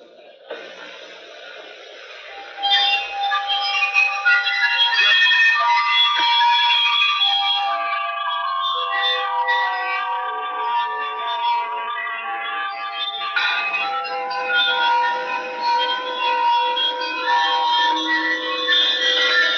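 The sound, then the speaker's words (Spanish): Music played on glass instruments by a glass orchestra, with bright, ringing sustained tones and shimmering overlapping notes forming a continuous melody throughout, clear, with no voices. “Algunas veces, en vez de agua, se utiliza vidrio en fragmentos para lograr el efecto deseado. la Orquesta de Vidrio se ha ganado la atención seria de la crítica a través de sus conciertos, generalmente ejecutados a la luz de las candelas.”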